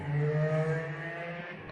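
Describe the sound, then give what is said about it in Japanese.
A motorcycle engine drones steadily as it passes by outside, a low harmonic hum holding level for a couple of seconds, with no voices present. “あ、今、今の拾ってましたバイクの音。”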